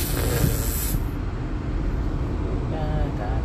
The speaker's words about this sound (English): Uh, what shall we say? Um, we'll say robot ambience.